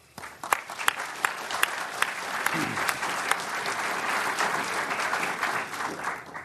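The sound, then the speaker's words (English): Sustained applause from a sizable audience welcoming the panelists, steady clapping with a few sharp louder claps near the start, lasting several seconds. “So please welcome our panelists.”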